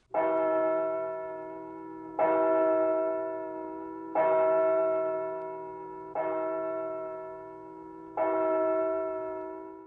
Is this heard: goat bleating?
no